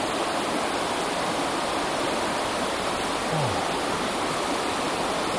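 A steady rushing roar like a waterfall, a dense, unbroken hiss like pouring water that holds an even loudness throughout, with no voices.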